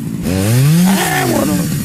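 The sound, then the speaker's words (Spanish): A voice imitates a chainsaw revving: a loud, buzzing drone that climbs in pitch, holds briefly, then winds back down, lasting under two seconds. “Dale, dale motosierra.”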